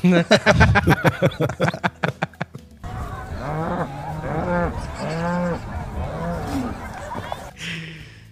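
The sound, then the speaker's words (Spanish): Cows in La Gomera, Escuintla, moo several times in quick succession, loud, each call a short rising-and-falling bellow. A burst of rapid, choppy pulsing sounds comes just before the lowing begins. “Y después compararlo con un clip de vacas de la Gomera Escuintla que te asaltan.”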